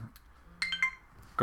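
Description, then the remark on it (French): A mobile phone gives a short message alert: a quick run of three bright electronic chime notes, clear, before a voice starts speaking. “Ça c'est mon téléphone qui sonne.”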